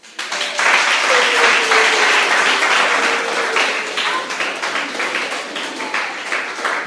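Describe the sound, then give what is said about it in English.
A crowd breaks into sustained applause in appreciation of the Apostle, a dense wash of many hands clapping at once, loud and steady before gradually thinning toward the end. Faint voices or cheers may rise within it. “Listen, first of all, help me appreciate Apostle.”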